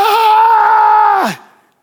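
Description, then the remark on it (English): A man lets out one loud, drawn-out anguished yell, held steady for over a second before his voice cracks downward and trails off. It is a person acting out a cry of distress. “Scripture doesn't say this, but I absolutely believe that Moses cried out.”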